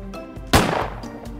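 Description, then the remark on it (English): A single loud gunshot sound effect cracks out midway, a sharp blast with a short fading tail, set against a quiet, steady musical background. “So you're gonna end her with the gunshot sound effect after everything that happened?”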